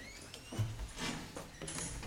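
A front door is pushed shut in the evening during pouring rain, with a few soft mechanical clunks and rattles of the latch, fairly quiet, with no voices.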